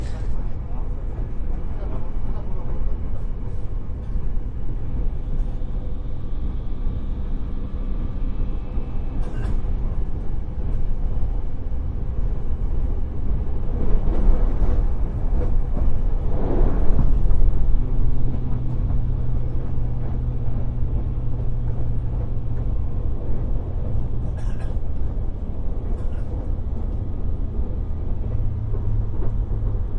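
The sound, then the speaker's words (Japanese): Steady low rumble of the Kamome No. 50 express train in motion, heard from inside the carriage on a return trip from Nagasaki, continuous and fairly loud, with a swelling roar midway and faint background voices or announcements. “えー、そして今聞こえておりますのが、あまり福岡とは関係なくて、先日長崎に行った時に帰りに乗ったかもめ50号の車内の音が聞こえておると思います。”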